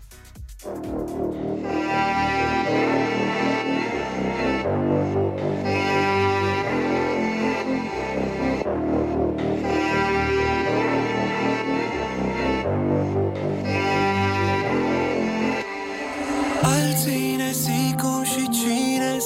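An unreleased pop song plays loudly and steadily, a full instrumental arrangement with rhythmic sections and short breaks, shifting to a brighter, denser passage near the end; no one talks over it.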